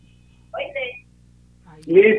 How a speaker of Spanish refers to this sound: tenemos mala señal, señor concejal. ¿Sí? ¿Me escucha? Ahora sí, teníamos una mala recepción de la llamada. Posiblemente se encuentra ubicado en un lugar donde no entra la señal del teléfono.